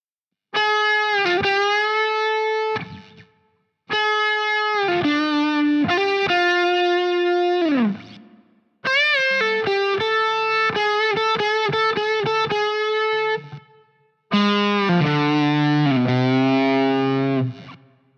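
Distorted electric guitar plays four short bursts of bluesy pentatonic licks with bends and quick repeated notes, separated by brief pauses, loud and up close with no voices.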